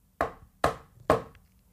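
Three firm knocks on the door of a home at night, evenly spaced about half a second apart, each a sharp wooden thud that quickly fades, with no voices.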